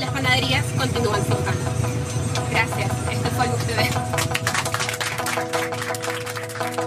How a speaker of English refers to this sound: It's crowded. After the bus finally fills up, it takes off and the broadcast continues in full force.